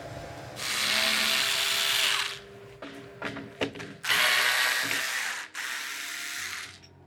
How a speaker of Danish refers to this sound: Skrue for skrue bliver det elgamle maleri, som længe har været gemt væk i magasin, forsigtigt løsnet fra sin ramme.